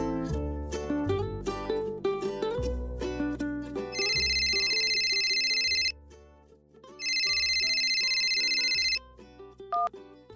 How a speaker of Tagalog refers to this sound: Hanggang isang araw ay nagulat na lamang ako nang may tumatawag na unknown number sa aking cellphone.